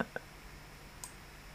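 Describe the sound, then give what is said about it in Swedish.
Two quick computer mouse clicks close together at the start, then a lone click about a second later, all short and fairly quiet over a low, steady hum, clicking on a link. “Om man klickar på den vita kaninen så kommer man till”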